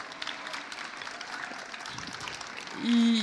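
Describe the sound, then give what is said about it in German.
Steady audience applause fills the space, a dense patter of many hands clapping at once, fairly loud and continuous, with a brief tonal sound cutting in near the end, as an audience at a trade fair welcomes an artist about to demonstrate drawing faces. “einen donnernden Applaus bitte mal eben.”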